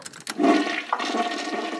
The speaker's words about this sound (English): And here's a toilet flushing.